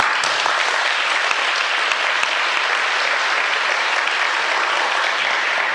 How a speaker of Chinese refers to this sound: 呃，拍手固然是拍手啦，哈，这个还是要大家共同努力的。